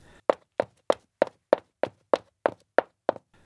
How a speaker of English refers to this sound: What a hoot to imagine how they made those great sound effects. A door opening and closing. shoes walking across the floor,